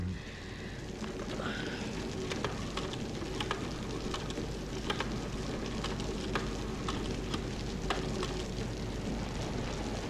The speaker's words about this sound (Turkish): Yağmurun sesini duymuyor musun? Camları nasıl dövüyor?